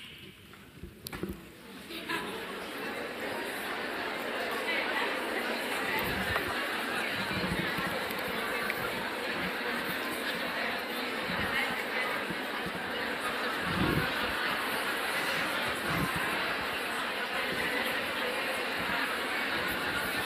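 An audience talking at once in pairs with their neighbours for about 20 or 30 seconds about how they handle e-mails, a steady dense murmur of overlapping voices with occasional laughter, no single speaker standing out.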